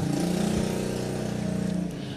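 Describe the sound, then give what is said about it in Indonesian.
A loud motorcycle engine roars, its steady low rumble and harmonic whine filling the moment as it passes, with no talking over it. “berisik banget motor”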